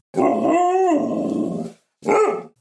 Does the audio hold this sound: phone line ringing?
no